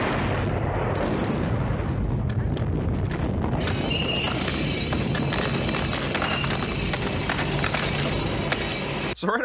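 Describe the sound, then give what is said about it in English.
A loud, sustained explosion roars at the opening of a film, a dense rumbling blast that turns brighter and more crackling after a few seconds before cutting off abruptly. “way we have the classic explosion, which if you're seeing this, gotta film, have it.”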